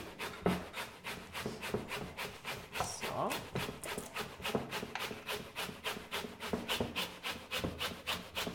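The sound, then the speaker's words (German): Steady, rhythmic rasping strokes of vegetables being grated on a kitchen grater, fairly loud, repeating about twice per second throughout, with a brief spoken word early on. “Sagst du mir jetzt, wenn ich fertig bin mit Reiben.”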